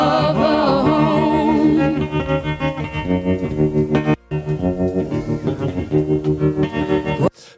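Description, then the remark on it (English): A bluesy rock track plays loudly with distorted, effects-laden guitar and steady driving rhythm, briefly cutting out near the middle and again right at the end. “it's got that bluesy feel kind of going thing going”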